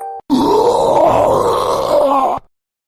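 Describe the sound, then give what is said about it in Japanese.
Someone retches loudly inside an old tunnel in the mountains, a single strained, drawn-out heaving groan lasting about two seconds before cutting off abruptly, with no talking around it. “誰かが吐くような声が聞こえてきました。”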